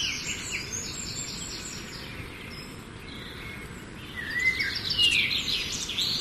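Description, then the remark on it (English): Several birds chirp and tweet outdoors in a sunny yard, a steady scatter of high, quick calls over a soft hiss of background noise, growing a little livelier near the end. No one speaks. “So, with that, let there be birds chirping in the sunny yard.”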